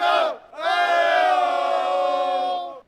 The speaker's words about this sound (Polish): Dopingu właśnie, żeby wesprzeć swoją drużynę. Postaramy się to dzisiaj zapewnić. Damy radę, będzie głośno.